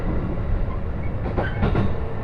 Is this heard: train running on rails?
yes